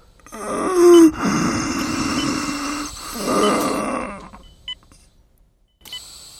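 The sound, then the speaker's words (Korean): A dying father groans and breathes in labored, ragged, quickening heaves, strained, the gasps bunched together before trailing off into near silence with a faint beep near the end. “점점 가빠지는 숨소리를 뚫고 가까스로 뱉어낸 말.”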